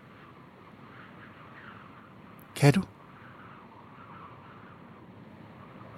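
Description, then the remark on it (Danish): A steady, breathy rush of wind blowing over desert sand hisses continuously across the whole stretch, soft and even, briefly interrupted by a short spoken question partway through. “Det er vinden, der blæser hen over ørkenens sand.”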